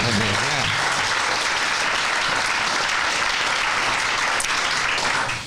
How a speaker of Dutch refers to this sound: ja, dat mag wel even applaus. worden.